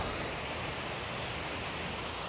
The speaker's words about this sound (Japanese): 今ね渓谷沿いを歩いてますここ綺麗だよね川が透明度が高いしだんだんとこう滝状になってて